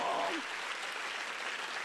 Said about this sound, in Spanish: Yo nací para hacer que Dios se contente conmigo. Si usted entendió eso, dele mejor el aplauso